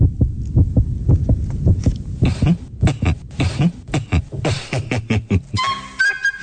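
A steady, muffled heartbeat thumps in a quick, regular rhythm of low pulses, fairly loud, with a brief higher tonal sound appearing near the end.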